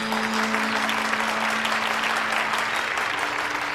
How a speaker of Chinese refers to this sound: 同学们，新的学期到来了，我们今年又有十五个小朋友入学了，大家以热烈的掌声欢迎他们！